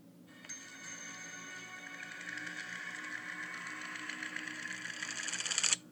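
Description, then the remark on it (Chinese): A flashback transition sound effect from a show, played whenever the story returns to past scenes: a rapid, whirring mechanical rattle, like ticking gears, that swells steadily louder and brighter for about five seconds, then cuts off abruptly. No one speaks. “对，回到过去的段落的时候啊，它都会出现一个音效。呃，我放给大家听一下。”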